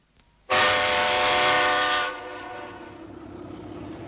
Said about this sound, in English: Ah, here's the train now.